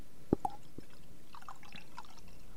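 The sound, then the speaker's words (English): A fizzy drink poured into a cup that is being moved away: a few sharp splashy drips at first, then a faint, sparse crackle of fizz, quiet, with no one talking. “That was the lamest fizz I've ever heard.”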